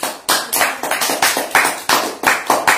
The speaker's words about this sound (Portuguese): Uma salva de palmas para o Senhor Jesus.